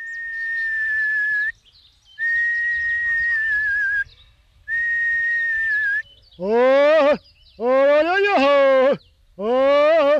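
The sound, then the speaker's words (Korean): A herder on Jeju Island whistles three long, steady tones with short pauses, then gives three shorter rising-and-falling whistled calls, loud with no talking, to call back horses that have strayed from the herd. “배열에서 이탈한 말을 불러세울 땐 휘파람이 요긴하게 쓰입니다.”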